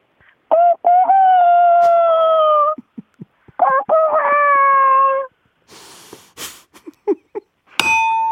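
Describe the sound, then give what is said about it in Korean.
A person imitates a rooster crowing twice over the phone, each drawn-out, loud call lasting a couple of seconds, followed by scattered clunks and a short bell-like ding. “닭소리 중요합니다.”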